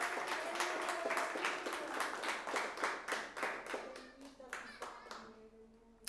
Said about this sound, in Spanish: Aleluya, denle un aplauso si usted trajo las manos en esta tarde. Aleluya.